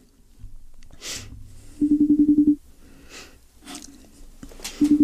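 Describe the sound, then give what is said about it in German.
A telephone ringback tone on an outgoing call to someone at home: one loud, steady buzzing burst, then a pause and the start of the next ring. Faint breathing and rustling noises fill the gaps. “Es klingelt schon mal, das ist ein gutes Zeichen.”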